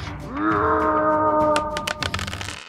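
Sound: voice imitating a scream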